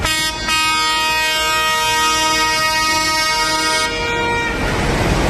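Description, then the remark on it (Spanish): Horns blare from about thirty protest tractors trying to enter the Paseo del Espolón in central Logroño, Spain, during farmers' protests: a loud, sustained, buzzy tone after a short opening blast, holding steady for several seconds before cutting off into rumbling engine noise. No one speaks. “Es el sonido del momento en el que los tractores intentaban acceder al Paseo del Espolón, donde está la sede de la delegación del Gobierno, también del Ejecutivo Autonómico”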